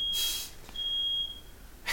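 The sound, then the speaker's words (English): A smoke alarm set off by kitchen steam while cooking bacon sounds in shrill, high-pitched beeps: a long tone, a pause, another long tone, then a third starting, ringing fairly loud over faint room noise with no talking. “it also comes with a, fire alarm flavoring.”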